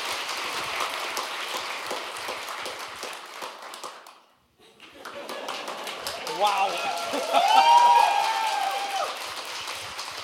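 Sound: audience applause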